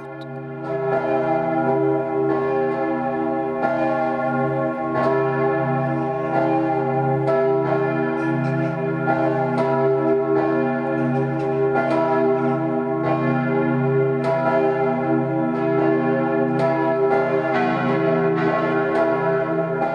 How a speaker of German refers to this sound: Bayern 1 präsentiert das 12 Uhr Läuten. Es ist 12 Uhr. Das Mittagsläuten kommt heute aus Wasserburg am Inn.